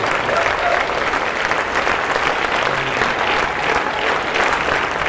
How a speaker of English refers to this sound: which I think deserves a round of applause for its absolute novelty.